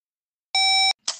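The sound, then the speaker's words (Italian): A single steady electronic beep lasting about a third of a second, clear, the tone of a telephone answering service signalling to record a message, followed by a brief breathy noise burst. “servizio di segreteria telefonica. Dopo il segnale acustico, registra il tuo messaggio.”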